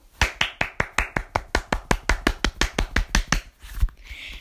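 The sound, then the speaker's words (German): A short burst of applause in honour of Felix: roughly twenty sharp, evenly spaced claps in a brisk steady rhythm, fairly loud, ending abruptly, with no one talking over it. “Warte kurz, einen kleinen Applaus.”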